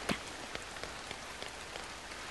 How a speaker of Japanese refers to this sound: あまりの激しい雨に私たちは大声で笑った口に雨が入ってきた